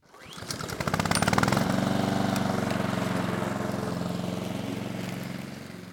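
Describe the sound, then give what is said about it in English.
A lawn mower engine sputters to life with rapid pulsing, then settles into a loud, steady droning hum that runs unbroken to the end, with no voices, as a boy cuts a lawn with his dad's lawn mower. “He ran into his backyard and grabbed his dad's lawnmower and began to cut Jace's lawn for him.”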